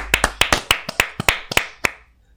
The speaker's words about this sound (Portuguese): Pá, ele merece uma salva de palmas.